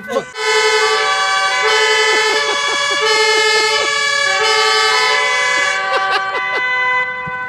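A fire truck's horn and siren blare together, a loud, sustained multi-tone wail with steady pitch shifts and brief stutters, running continuously for several seconds with no pause.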